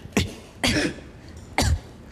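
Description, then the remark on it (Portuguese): Three short, sharp cough-like bursts, unevenly spaced with no talking, a voice imitating a beatbox snare drum by clipping quick coughs. “a caixa é uma tosse, né?”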